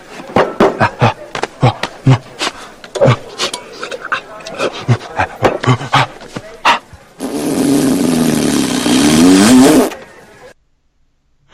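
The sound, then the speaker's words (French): A man imitates a monkey with a fast run of loud, choppy hoots and chatters, then a sustained raspy shriek lasting a few seconds before cutting off into silence. “C'est son imitation de singe.”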